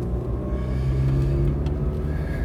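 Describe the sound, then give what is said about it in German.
A car engine drones loudly and steadily while driving, noticeably louder and different-sounding than it used to be, a deep low rumble with a humming tone and no breaks, the level holding even throughout. “Allerdings, äh, vielleicht hört ihr es ja, mein Auto ist äh, deutlich lauter und hört sich ganz anders an als damals, als ich meine Sprechgarnitur fürs Auto fertig gemacht habe.”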